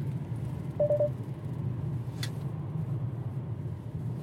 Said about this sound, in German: mein Spurassistent nicht einfach nur piept, wenn ich über die äh, gestrichelte Linie auf der Straße fahre